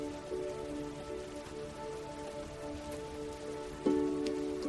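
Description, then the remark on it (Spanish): Steady rain patters down in a soft, continuous hiss, blended with a sustained, gentle ambient musical drone that swells slightly near the end. No voices. “Imagina que está lloviendo. Escucha el sonido del agua.”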